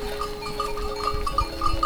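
A goat bleats in a quick run of short, wavering calls at moderate loudness, with a steady low rumble and faint background noise underneath and no talking.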